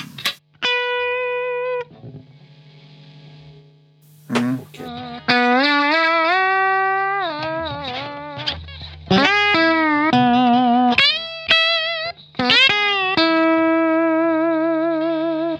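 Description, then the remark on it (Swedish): Sustained electric guitar notes played through a compressor pedal, each note ringing out smoothly, while a steady background hiss swells up noticeably in the pauses between phrases. “Här hör man också hur den lyfter ut, upp eh, bruset ganska ja, mycket.”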